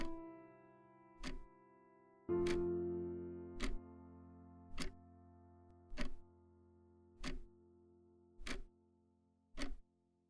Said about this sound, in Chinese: 我们才发现他说话的时候旁边一直有一个时钟在发出微弱的滴答滴答声，这是时间在流逝的声音